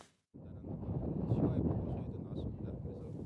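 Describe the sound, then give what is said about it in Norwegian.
Cold wind blows steadily through the streets of Geneva as winter lingers, a loud, continuous rushing roar with low buffeting rumble that starts abruptly after a brief silence and never lets up. “Kald vind strømmer gjennom gatene i Genéve.”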